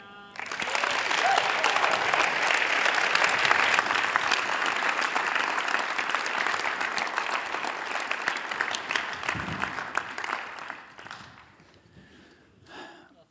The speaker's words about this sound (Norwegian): Skal vi gi henne en skikkelig klapp?